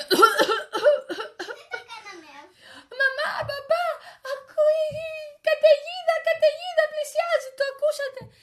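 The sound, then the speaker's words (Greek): A voice acts out a run of coughing, with rough, repeated hacking bursts mixed with whimpering, moaning sounds. It is fairly loud, with brief pauses between the fits. “Αχ, βάλανε όμως τα διάβροχά τους και, ε, και αρχίσανε να βήχουν”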